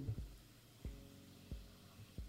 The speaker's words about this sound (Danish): der er sådan en summen op bagfra. Det er simpelthen fordi, det er julelandskabet, man kan høre, som er en stor ting i vores hus og vores familie, når det bliver december.